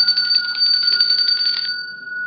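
An alarm bell, accidentally set off, rings continuously with a rapid, rattling metallic clang at a high pitch, loud and steady, then stops abruptly and leaves a fading ringing tone.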